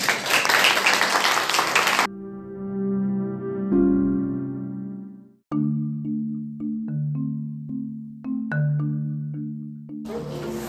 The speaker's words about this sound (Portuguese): Palmas para as meninas aqui.